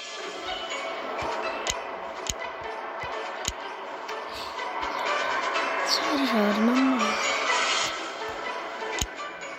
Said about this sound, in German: Oha, Autos.